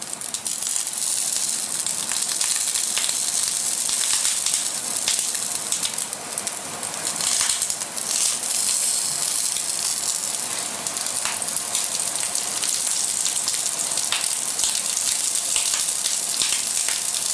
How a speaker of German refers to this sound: Mit dem Poppen hört man schon, dass die äh, Schwarte schön knusprig wird.